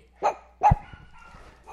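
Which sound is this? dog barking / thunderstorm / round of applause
dog barking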